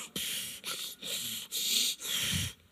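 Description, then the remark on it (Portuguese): A person snorts and sniffles in five forceful, breathy bursts in quick succession, each about half a second long with short pauses between. The sound is fairly loud, with no talking. “Você nunca teve assim, não? Fungando, bufando.”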